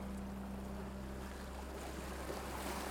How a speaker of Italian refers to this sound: Lascia che il suono del mare inondi il tuo corpo lascia entrare l'energia dell'universo.